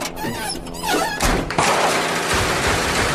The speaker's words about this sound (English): Fuck it in, cuz. Cop the crib, kick the door.